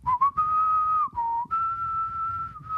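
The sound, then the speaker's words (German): A whistled tune imitating the flute part from the opening scene of The Lion King: a few quick opening notes, then long held tones, dipping briefly lower before a sustained higher note. Clear, steady and alone with no talking. “Da ist eine Querflöte gespielt.”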